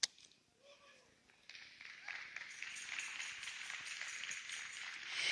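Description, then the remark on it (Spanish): An audience bursts into applause after a brief quiet moment, the clapping swelling into a steady, dense wash of hands that grows a little louder toward the end, applauding a newly engaged couple asked to stand up. “Denles un aplauso fuerte.”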